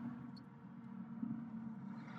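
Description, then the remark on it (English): A Mack truck's engine rumbles steadily, a deep droning hum that holds at an even level without clear approach or fade. No one speaks. “But I guess outside of that and this Mack truck, that is really about everything that's been going on.”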